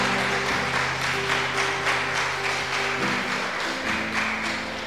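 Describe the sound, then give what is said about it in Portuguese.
An audience at a Portuguese-language church service applauds loudly at the preacher's call, a dense, steady wash of many hands clapping that continues throughout, with sustained low keyboard tones held underneath. “Vamos é aplaudir, vamos aplaudir forte.”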